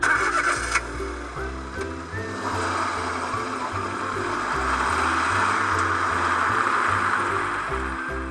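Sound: truck engine running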